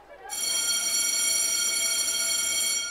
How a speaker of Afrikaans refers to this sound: Die klok lui en die skooldag is verby.